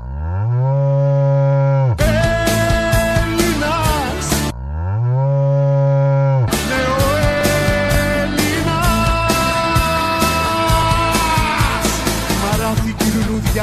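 A cow moos loudly twice, each low drawn-out call rising in pitch, and both times a busy, loud stretch of music bursts in right after.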